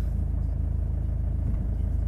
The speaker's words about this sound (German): Ich hoffe, das hält, weil ich jetzt mal eben drehen und wenden und einparken muss mit diesem dreieinhalb-tönnigen Gerät hier.